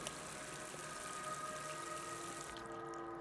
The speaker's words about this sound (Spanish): El agua corriendo se las estaba llevando por el desagüe. Pero mi mamá solo veía agua correr.